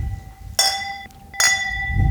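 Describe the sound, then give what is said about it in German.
Two bright clinks of wine glasses touching in a toast, each ringing out with a clear sustained tone, with faint murmur beneath. “Zum Wohl.”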